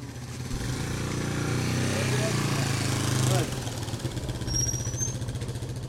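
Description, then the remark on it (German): An old motorcycle ridden by an anti-drug police officer in the Colombian jungle rumbles steadily, swelling louder as it arrives, then shifts to a rougher, choppier idle after a few seconds. “Der grünste Antidrogenpolizist Kolumbiens kommt auf einem alten Motorrad gefahren.”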